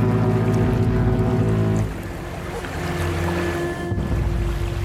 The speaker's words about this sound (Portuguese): Lin foi acordado por um forte apito marinho